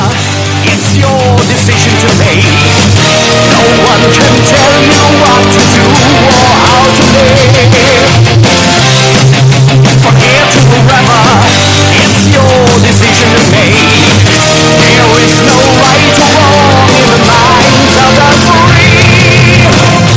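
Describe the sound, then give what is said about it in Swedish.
Loud, dense rock band music, the title track of the band's latest album released in February, plays continuously for about twenty seconds, with steady pounding drums and thick layered instruments filling the whole mix, no talking over it. “I februari i år släpptes deras senaste platta och vi ska lyssna en bit på titelspåret då.”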